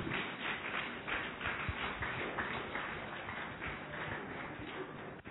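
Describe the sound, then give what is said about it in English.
A church audience claps hands for Jesus steadily for several seconds, a dense, continuous patter of many overlapping claps with a few sharper, louder hits mixed in. “Just clap your two hands for Jesus.”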